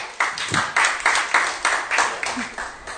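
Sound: audience applause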